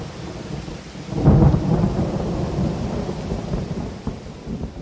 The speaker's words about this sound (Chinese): 入夜之后，不出意外的下起了倾盆大雨，像天公在颠倒来去的炒一锅豆子。